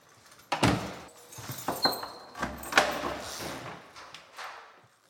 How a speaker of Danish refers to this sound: Nu er alle dørene låst op, og vi lå som ikke igen før kl. 21.15. Så nu har de fri adgang ud på ja, WC, e bad og toilet.